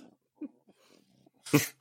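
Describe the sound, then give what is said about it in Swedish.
A French bulldog named Dora snorts and wheezes through its nose with a few soft, raspy breaths, then one sudden loud, harsh snort. “De kan ju inte andas. Det är därför hon låter sådär.”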